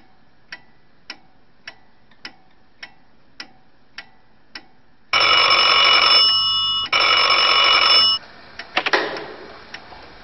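Steady, evenly spaced clock-like ticks give way to a loud, shrill telephone bell ringing in two long bursts, followed by a short clatter. No one speaks.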